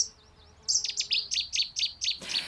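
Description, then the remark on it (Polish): A songbird sings a quick series of about eight bright, high chirps in a steady rhythm, clear, with no voices, ending in a brief burst of noise. “To może w takim razie niech teraz jakiś skowronek zaśpiewa. Hmm? albo słowik.”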